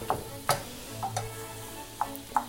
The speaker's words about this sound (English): It's still frozen. I'm, not, I'm just going to kind of let it cook in here. And I'm going to stir this corn in and the heat of everything and the oils of the chicken and the marinade will mix all in there and start cooking the corn.